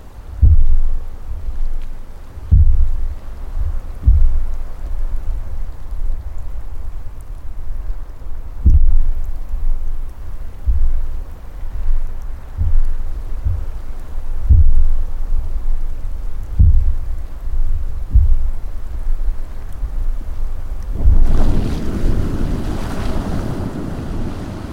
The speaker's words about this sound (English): The thumps are followed by a rush of bubbles on the surface of the pool. The gases are escaping. This gassy thumping and fizzing goes on all day and all night.